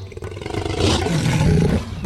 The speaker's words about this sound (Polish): Głodny tygrys, waląc ogonem po zapadniętych bokach, sprężył się do skoku. Z ogłuszającym rykiem odbił się od ziemi.